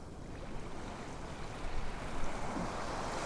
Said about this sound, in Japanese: もし何か考えが浮かんだり意識がそれていることに気づいたらもう一度聞こえてくる音海辺のイメージに集中し直します